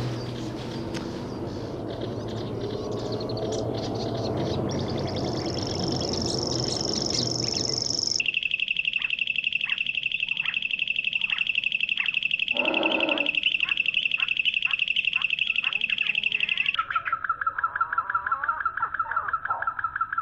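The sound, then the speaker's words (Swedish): A grasshopper warbler's high, insect-like reel runs steadily throughout together with a nightingale's song, ticking in rhythmic pulses and shifting pitch in sections, over faint outdoor background noise. “Lite näktergal och grä, gräshoppsångare fick jag ju ja, det var, det kanonljud tillsammans med skällande rådjur.”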